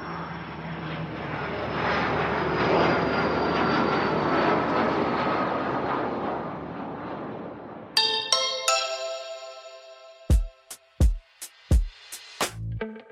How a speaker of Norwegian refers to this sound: Da setter vi oss i flyet vårt igjen og drar til Norge.